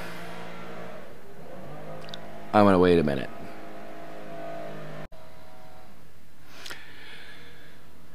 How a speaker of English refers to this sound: I wonder if you guys can hear the leaf blower just outside my office window.